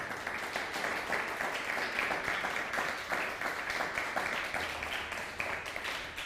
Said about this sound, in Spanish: Así que fuerte aplauso a la comunidad chilena.